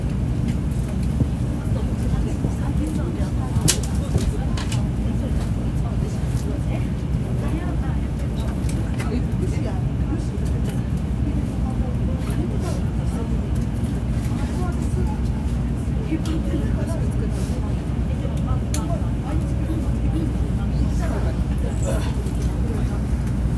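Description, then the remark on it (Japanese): The Shinkansen bullet train Nozomi 127, bound for Hakata with Fukuyama as its next stop, pulling away, heard as a steady, heavy low rumble that fills the whole stretch, with occasional faint clicks and rattles riding on top. “のぞみ127号博多行まもなく発車いたします。”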